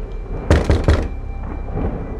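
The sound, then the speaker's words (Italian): Three firm knocks on apartment door 1109 on an eleventh floor, made by police officers in quick, even succession, heavy and thudding, followed by quiet background with a faint hum. “Arrivati nel corridoio, in silenzio sollevano le armi camminando lentamente verso l'appartamento arrivano di fronte alla porta 1109. Bussano.”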